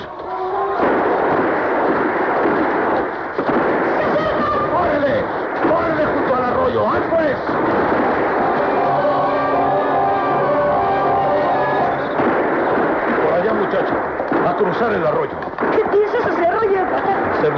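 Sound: gunshots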